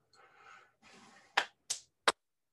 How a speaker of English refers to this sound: We had a lot live audience tonight. A uh, group of three. Can you give us a round of applause?